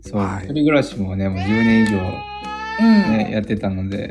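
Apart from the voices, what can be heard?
cat meowing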